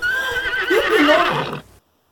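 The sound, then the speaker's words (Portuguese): King Arthur's horse, startled by something while he rides through the trees, lets out a loud, shrill whinny lasting over a second, its pitch wavering and dropping toward the end before cutting off into silence, with faint hoof-like thumps underneath. “De repente, seu cavalo se assustou com algo”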